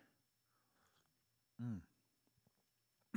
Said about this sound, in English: Get a sip of tea.